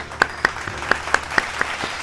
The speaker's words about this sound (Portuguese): Oh, palmas para o